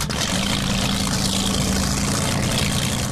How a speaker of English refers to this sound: The sea sled can hit a speed of over 40 knots because they're equipped with, you guessed it, airplane engines. These boats speed across the Seattle waters with deafening noise.